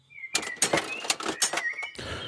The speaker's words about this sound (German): Das Ticket wird ausgeworfen